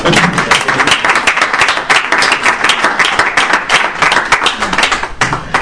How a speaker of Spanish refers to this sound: Como no, Otro aplauso